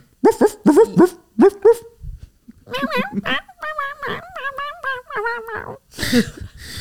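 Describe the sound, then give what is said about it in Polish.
A dog gives a rapid run of five sharp barks, then breaks into a longer string of whiny, yelping vocalizations, ending with a brief noisy burst; fairly loud. “nie miauczenie i szczekanie, hałczenie, hałczenie jest dobrym słowem”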